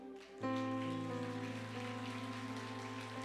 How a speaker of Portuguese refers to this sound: Recebe esse aplauso, Senhor.